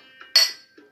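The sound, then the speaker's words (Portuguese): Glasses clink together once in a toast, a bright chime that rings briefly before fading, with a couple of faint soft knocks around it and no talking. “Então, nesse momento, só nos resta um brinde. Um brinde, vamos lá.”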